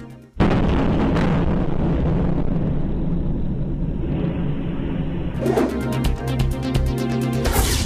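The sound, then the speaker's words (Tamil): A heavy blast from a Russian missile strike on residential areas in Ukraine bursts in suddenly and loud, leaving a sustained deep rumble, followed later by a cluster of sharper crackling booms; no voices are heard. “உக்ரைனில் குடியிருப்பு பகுதிகள் மீது ரஷ்யா ஏவுகணை தாக்குதல் பலத்த சப்தத்துடன் வெடித்ததால் கடும் அதிர்ச்சி”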